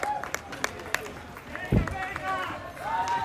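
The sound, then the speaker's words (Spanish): Scattered claps from spectators cheering on the last straggling marathon runners, sharp irregular hand claps rising over a bustle of voices and crowd noise, with a brief low thump partway through. “La gente aplaude animando a, los rezagados que lo necesitan, ¿eh?”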